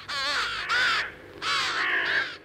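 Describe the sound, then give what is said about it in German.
A crow caws loudly, a few harsh, raspy calls in quick succession with a short pause between two bursts, with no voices present. “Um herauszufinden, wie Zahlen im Vogelgehirn verarbeitet werden, trainierte Andreas Nieder seine Krähen.”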